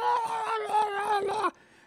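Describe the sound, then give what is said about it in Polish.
A voice imitates a creature's scream from a video game: one loud, strained, sustained cry lasting about a second and a half, wavering slightly in pitch before cutting off abruptly, heard alone. “I idziemy jedną z prostszych misji i wyobraź sobie, nagle słyszymy krzyk, dosłownie takie”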